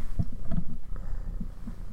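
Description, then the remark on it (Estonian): A cat purring, a low, steady rumbling vibration with a soft pulsing rhythm that continues throughout, no voices present. “siin on meil üks Norru kass ka, üks Norru tiiger”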